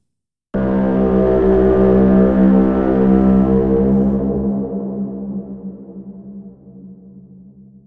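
A deep, buzzing didgeridoo drone layered with a boat horn, the combined sound-design mix processed on the master, starts abruptly, swells loud and rich, then slowly thins and fades over several seconds. No one speaks.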